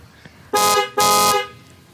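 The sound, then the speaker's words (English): A motorcycle horn sounds two quick, loud toots in a row, the second slightly longer, bright and buzzy, with quiet background before and after. “Uh, I'm gonna go ahead and play them um, a horn toot here.”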